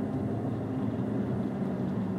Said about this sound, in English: Sorry, I'm just listening. Uh, that's not my car. Sorry. Uh, you start hearing stuff. Nope, not my car. It's somebody else's.